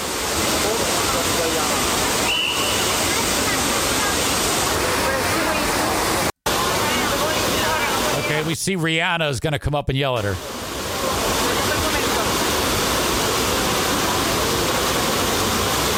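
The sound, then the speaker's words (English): Fountain water splashes in a steady, loud, hissing rush that fills the whole clip, with a brief gap partway through and a voice speaking briefly over the constant spray. “Do not approach the fountain.”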